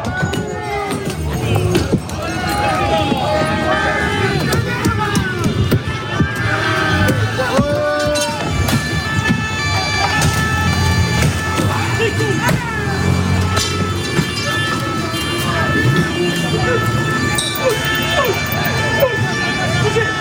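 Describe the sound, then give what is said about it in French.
A loud, chaotic street crowd clashes with police at a demonstration against police violence and racism in the police: overlapping shouts and yells, running footsteps, horse hooves clattering and a siren wailing through the commotion, dense throughout. “plus précisément de ces policiers qui ont été pris à partie dans une manifestation qui était organisée pour lutter contre les violences policières et le racisme dans la police.”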